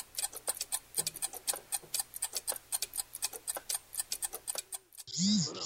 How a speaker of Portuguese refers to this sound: Porra, teu celular tá no Vibracal ainda, velho. Caraca, cara, como é que pode?